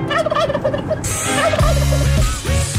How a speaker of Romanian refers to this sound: Da, ei, am băgat mai devreme un uh, sunet din ăsta de curcan, sunetul uh, sfânt de curcan de aici, de la Morning Glory, practic, uh, ce ne-a consacrat vocea, talentul și curcanii.